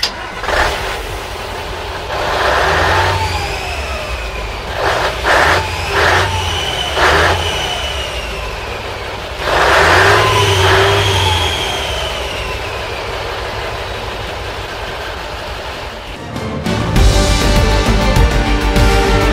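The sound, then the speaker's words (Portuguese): Loud V8 engines of Brazilian race cars, modified and lightened cars with huge V8 engines from American Ford and Chevrolet cars, rev in repeated bursts, their pitch climbing and falling as they pass by, followed by a harsher, steady roar near the end. No one speaks. “Em 1956 realizou-se a primeira prova de longa duração, as Mil Milhas Brasileiras, onde predominavam as carreteiras, que eram carros adaptados, aliviados o peso e com motores enormes V8, oriundos dos carros americanos Ford e Chevrolet.”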